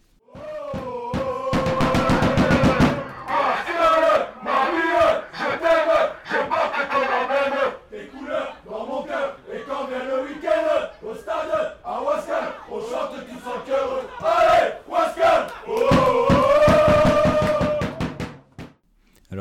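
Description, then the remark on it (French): A small group of ultras supporting a National 3 football club chants loudly in unison inside the Lucien Montagne stadium in Wascal, rhythmic shouted refrains punctuated by sharp, repeated drum or clap-like bursts, filling the space with sustained, energetic noise. “Euh, comme euh, tu peux le constater comme vous avez tous pu le constater, une très belle ambiance dans ce stade Lucien Montagne de Wascal.”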